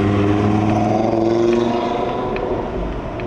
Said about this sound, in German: Und schön, man hört ein anfahrendes Auto, man weiß, jetzt ist erstmal rot. Also man nimmt auch klar wahr, wo die Straße ist, durch den vielen Verkehr.